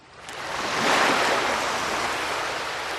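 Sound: mediterranean sea waves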